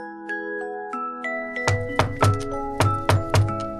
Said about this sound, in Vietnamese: Bây giờ ai đấy nghe tiếng gõ cửa quen quá.